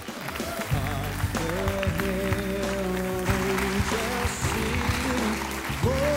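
A loud audience applauds steadily throughout as a young man is welcomed onto a stage, the clapping blending with upbeat music that plays underneath, with sustained tones and a driving beat.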